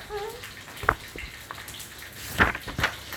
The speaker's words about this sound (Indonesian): ya Allah, backsoundnya ini ya. Backsoundnya masak.